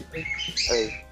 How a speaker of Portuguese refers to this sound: Deixa o passarinho cantar. Ah! Caraca, vocês estavam escutando o passarinho cantando?